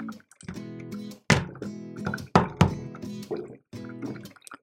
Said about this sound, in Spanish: Y justamente es para que no no, no un sonido muy fuerte, porque si no utilizar esta tela, en los episodios sonaría cada vez que cojo mi cada vez que dejo mi teléfono en el escritorio sonaría así.